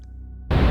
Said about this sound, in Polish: Następnie z krótkofalówki starszego sierżanta Kaczmarka odzywa się pierwszy szum. Trwa niecałe dwie sekundy.